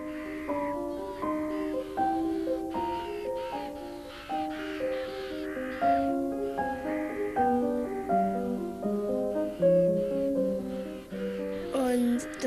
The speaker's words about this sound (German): In Riesengeschrei, jetzt landen hier schon die ersten Raben auf den Bäumen.